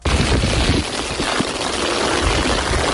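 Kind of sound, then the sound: nature, heavy rain falling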